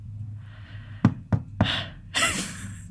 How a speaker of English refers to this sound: Suddenly, there's a knock on the door.